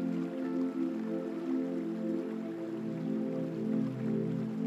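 Steady flowing river water with soft scattered drips, continuous and moderately quiet, blended with a sustained low humming drone underneath; no one speaks.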